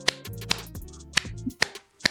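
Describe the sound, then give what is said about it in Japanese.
Sharp, crisp hand claps in a steady rhythm, about five over two seconds, as a speaker demonstrates the clapping fans did to warm up the audience before a concert, over a low droning hum with no one speaking. “ゴーゴーキングス的な感じで、こう、手拍子をしてですね”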